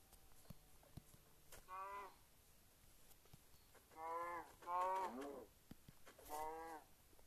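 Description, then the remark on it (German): Several short video game cow moos, about four calls spaced a second or two apart, each a low wavering bleat rising over quiet background noise with no talking. “Jo, da sind noch mehr Kühe.”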